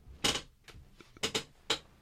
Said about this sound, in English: I have to get my chair tightened as well. It makes a lot of creaking noises these days.